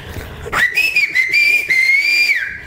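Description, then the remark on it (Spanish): A single long, piercing whistle used as a warning signal at a market, sliding up sharply then holding a steady high pitch for nearly two seconds, with a brief dip midway, and no talking. “Pero bueno, la cosa es que cuando entraban los esposos, ¿sabes que empiezan a chiflar?”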